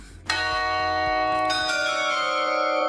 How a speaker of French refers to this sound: Une des merveilles de ce château en attendant, c'est le carillon.